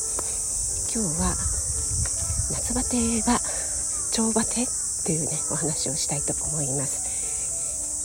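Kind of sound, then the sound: insect, cicadas buzzing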